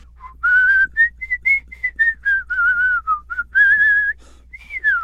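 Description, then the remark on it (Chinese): Someone whistles a melody alone while walking slowly, a string of clear, bright, mid-to-high pitched notes that glide and waver, with short pauses between phrases and a final long downward slide. “用极慢的速度走路，边走边吹的口哨，还是那一个口哨的那个音乐”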